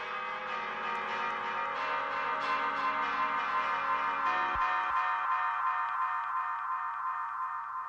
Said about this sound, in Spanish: Suenan las campanas debajo del agua. Campanas de boda en los esponsales del sapo y la rana. Campanas, campanas. Campanas grandes, campanas chicas, campanas niñas.